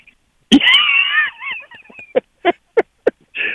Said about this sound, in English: Tell coach listening to that rooster in the background made me go to the drive through and get a chicken and egg biscuit.